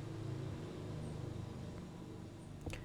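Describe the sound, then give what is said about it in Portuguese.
A motorcycle passing by drones steadily outside, a low, rumbling hum that holds for a few seconds, with a brief click near the end and no one talking. “Tem uma moto passando de um cara que tem um pito pequeno. Tem que aguardar.”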